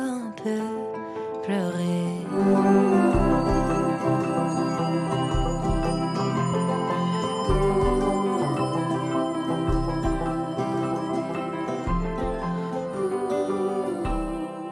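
A pop song with a female singer plays steadily at full volume, layered instruments over a pulsing low bass beat that thumps in regular bursts throughout.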